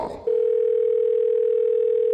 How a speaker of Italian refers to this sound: Facciamo così, lo chiediamo a tre elettricisti, li chiamiamo al telefono, il loro numero mi è stato inviato attraverso Whatsapp dai loro gentilissimi colleghi. Prima telefonata all'elettricista.